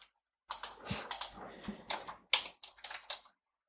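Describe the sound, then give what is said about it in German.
A burst of quick, irregular key clicks as someone types rapidly on the keys of a mobile phone, fairly loud for about three seconds, with no voices. “Das ist aber ein krasses Handy, das sie haben. Da hört man da richtig so Tasten.”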